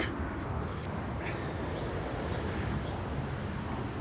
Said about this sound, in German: Und jetzt haben die Vögel so viel Kraft, dass sie mit dem Verkehrslärm mithalten können. 50 Meter von der Autobahn entfernt.